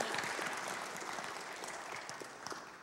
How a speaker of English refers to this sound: Come on, give our tech guys a round of applause. He got it. He got it.